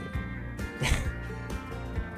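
A single short, sharp sneeze bursts out, standing out briefly against a low, steady background hum.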